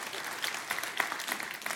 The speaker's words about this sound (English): oh, we can clap for that. It's better if we all do it. Amen.